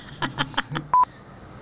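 A quick run of four evenly spaced telephone dialing beeps, then a brief steady tone and a faint high blip at the end. Short and clear, with no talking.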